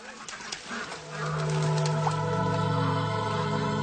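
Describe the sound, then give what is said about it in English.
A flock of geese on a pond, about 100 miles east of Winnipeg in 1967, honks and calls in a noisy, overlapping chorus that grows louder after the first second and stays steady throughout, with no voices. “Suddenly, he was distracted when a flock of geese in the pond below kicked up an unusual racket.”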